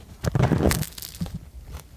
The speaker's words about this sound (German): Ich entschuldige mich für das ins Mikro schmatzen, aber es ist einfach zu gut.